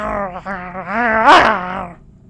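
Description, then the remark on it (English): A boy's voice in a movie lets out a drawn-out, animal-like growl lasting about two seconds, rising and straining near the end before cutting off, fairly loud with no other talk. “Oh, Fulton even growls.”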